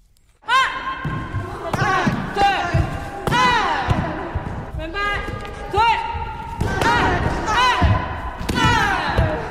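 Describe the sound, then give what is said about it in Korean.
Loud, rhythmic taekwondo kiai shouts from a group of women students in white uniforms training at the Ewha Womans University taekwondo club, Ewha Taekwon, ring out roughly once a second, each landing with sharp thuds and slaps of strikes, about nine bursts in all. “와, 힘찬 기합 소리가 들리는 이곳은 이화여자대학교 아닙니다.”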